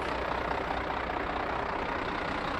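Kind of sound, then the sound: vehicle, large truck engine idling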